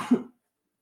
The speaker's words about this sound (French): Donne-moi deux secondes, je vais tousser.